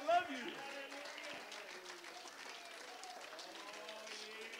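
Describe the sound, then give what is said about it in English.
An audience claps steadily for several seconds, a dense patter of many hands, while voices call out and talk loudly over the applause throughout. “Oh, I think we ought to clap our hands and thank him for it.”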